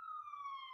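A police siren holds one steady, piercing wail that slides slightly lower in pitch, heard faintly with no voices over it.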